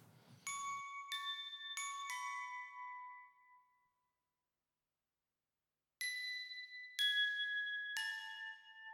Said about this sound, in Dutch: ons klokspelletje laten horen allemaal hele kleine subtiele geluidjes, maar die maken het wel. Eh, ik noem dat kleurtjes of sierentjes, dit soort dingetjes.